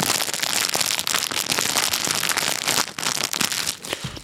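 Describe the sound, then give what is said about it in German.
Continuous crinkling of crisp plastic gingerbread cookie packaging, dense crackly rustles filling the whole stretch with brief dips, loud with no talking. “Dann, dann knister ich ein bisschen mit der Lebkuchenverpackung und dann kann sich jeder vorstellen, wie geil der Lebkuchen da drin ist.”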